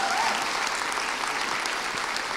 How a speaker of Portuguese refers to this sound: Obrigado, queridas. Vamos aplaudir o Senhor pela vida delas.